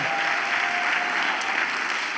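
A church crowd claps steadily and loudly as an offering to Jesus, a dense wash of many hands applauding at once with no pauses, filling the whole short stretch without any voices standing out.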